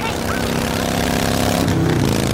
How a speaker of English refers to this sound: And this is what that same commercial sounds like on your motorcycle.